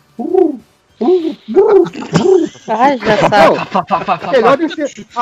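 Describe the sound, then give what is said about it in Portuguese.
A person mimics a pigeon's cooing with a series of rounded, warbling vocal coos, starting in short separate bursts and then running together into a continuous, wavering stream, fairly loud. “Não, eu fico imaginando, tipo assim, você tem que ficar, sei lá, quatro semanas na estação orbital ouvindo aquele.”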